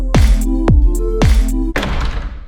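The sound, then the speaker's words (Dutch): A heavy door shuts with a series of deep, booming thuds, three resonant impacts in steady rhythm followed by a rougher rattling clunk, loud with a lingering echo. “Met het sluiten van deze deur breekt een nieuw tijdperk aan voor de gemeente Roosendaal.”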